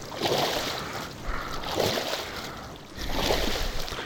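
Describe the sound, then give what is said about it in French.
A whale moving through water, heard as three broad, rhythmic surges of rushing, splashing water, each swelling and easing off, with no voices. “Mais, c'est pas un bateau. Ça ressemble. On dirait. Mais c'est. C'est. C'est une. Une, une, baleine”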